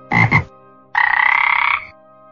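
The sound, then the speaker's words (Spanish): Frogs croak loudly: two quick throaty croaks, a short pause, then a longer, rapidly pulsing rattling croak that runs for about a second. No voices. “Logra que aparezcan millonadas de ranas desproporcionadas, gigantescas, monstruosas, que salen del río e invaden las casas.”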